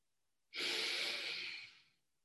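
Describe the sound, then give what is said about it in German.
A single long, deep breath drawn in through the nose and out through the mouth, a steady airy rush lasting over a second before fading out, with no talking around it. “Wir atmen einfach zwei, dreimal tief durch die Nase ein und durch den Mund wieder aus.”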